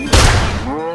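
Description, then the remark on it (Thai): A single loud, sharp shotgun blast, fired at a wild boar, bursts out abruptly and decays quickly, followed by a voice speaking as the blast fades. “แล้วลูกหมูป่าก็ได้ยินเสียงปืน หมูป่าได้ตกใจหันมาทางเสียงนั้น”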